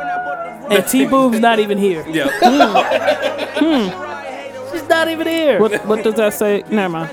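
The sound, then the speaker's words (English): Several people talk over one another in a lively jumble of overlapping voices, with scattered snickers and chuckles mixed into the steady, fairly loud chatter, in a studio during the Boomchella weekend gathering. “That's why you hear all the people in the background talking.”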